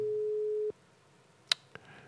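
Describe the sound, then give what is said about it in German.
A steady telephone ringback tone of an unanswered surprise call hums for under a second and then cuts off, followed by two sharp clicks like a line disconnecting. No one speaks. “Das ist die Gefahr mit Überraschungsanrufen.”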